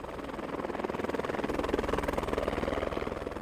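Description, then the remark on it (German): A helicopter flying a team shortly after 8 a.m. to a summit plateau of ice and snow among the highest peaks of Tyrol, its rotor producing a steady rapid chopping pulse over a loud, continuous engine roar, with no speech. “Der Hubschrauber bringt das Team auf den Gipfel, ein Plateau aus Eis und Schnee, umgeben von den höchsten Gipfeln Tirols.”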